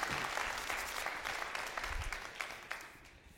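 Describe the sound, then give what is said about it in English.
An audience claps steadily, many hands making a dense, crackling patter that holds at a fairly even level for a few seconds before easing slightly toward the end, a round of applause in thanks to a man. “Give him a round thank of applause.”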